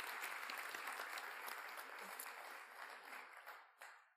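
A roomful of people applauds steadily, a dense wash of many hands clapping that holds for several seconds before thinning out and fading at the end.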